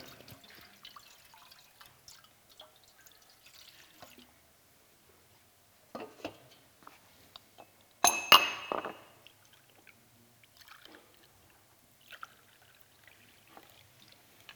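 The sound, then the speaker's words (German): Yesterday's broth is poured into a bowl, with scattered soft drips and light clinks and one brief, louder splashing clatter midway through. “Wir gießen die Brühe von gestern in die Schale von heute.”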